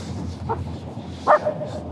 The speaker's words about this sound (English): Hey, hey, cut it out! All right. Well, the dog's gonna keep barking, but uh,